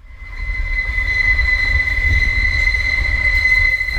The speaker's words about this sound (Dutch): Dit is niet geluid van een wild slaapkameravontuur. Het is de nieuwe tramlijn van Utrecht naar IJsselstein. De tram rijdt halverwege de lijn door een boog en dat maakt dit geluid.